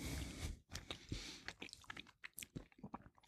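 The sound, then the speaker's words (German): Wet chewing of a soft, light brown-green, herbal-smelling gin-and-tonic gummy candy, with an initial bite followed by a steady series of squishy, sticky mouth sounds and no talking. “wenn du reinbeißt,”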